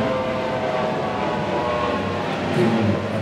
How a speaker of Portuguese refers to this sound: Tem um avião passando. Essa é a momento avião, avião. Momento avião.